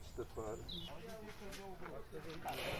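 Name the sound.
small birds chirping outdoors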